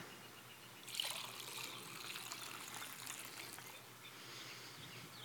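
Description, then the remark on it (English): Liquid poured into a cup, a steady trickling splash that starts abruptly, runs for a few seconds, then thins to a softer dribble. Fairly quiet, with no talking. “And in the same way, Jesus took the cup. And after giving thanks, he poured it out”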